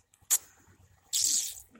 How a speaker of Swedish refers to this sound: Då hällde jag i lite det. Ska nog ta och fylla på med lite mer vatten bara så att